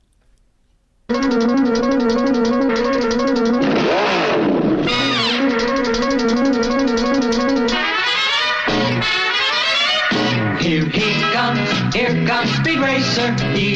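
A high-energy 1960s pop TV theme song bursts in after a second of quiet, loud and brassy, with a swooping engine-rev effect early on and busy, bouncing melodic lines throughout.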